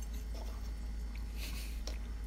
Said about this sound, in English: I'm glad everyone's going to hear us chewing. Mm, That's some good podcast. yum, yum, yum.